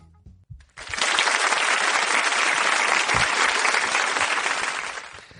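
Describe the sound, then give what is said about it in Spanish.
Applause for the physics blog Cuentos cuánticos, which won the CEPAN prize for best physics outreach blog. It starts abruptly after a brief low murmur and holds as a dense, steady wash of many hands clapping for several seconds before tapering slightly at the end. “Nosotros solo lo que podemos hacer es aplaudir.”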